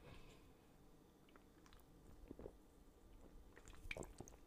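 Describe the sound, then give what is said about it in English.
Someone takes a quiet sip of a drink, with soft wet slurping, swallowing and small mouth clicks over a few seconds and no talking. “I gotta take me a sip because I'm feeling kind of parched out here.”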